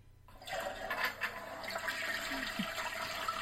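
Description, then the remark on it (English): A toilet flushes, a sudden loud rush of swirling water that starts abruptly and keeps churning steadily to the end, with no voices. “That's where you do your picks, right? On the toilet.”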